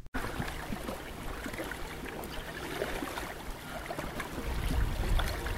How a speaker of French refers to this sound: un peu de son de bord de mer pour vous mettre dans l'atmosphère. On est à Saint-Augustin, juste en face de la communauté Inno de Pacoachipi.